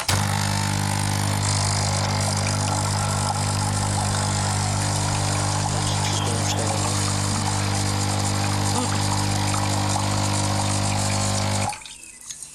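A capsule coffee machine's pump drones loudly and steadily with water splashing through as the machine runs a cleaning rinse, for about twelve seconds before cutting off abruptly into near silence. No one speaks.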